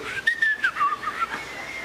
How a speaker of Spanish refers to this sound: ¿sabes chiflar? Hazle conmigo.